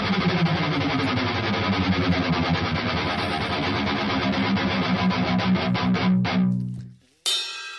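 Loud, heavily distorted heavy metal from a live album plays as a dense wall of guitars and pounding drums, with no talking, then cuts off abruptly near the end before a brief burst of noise.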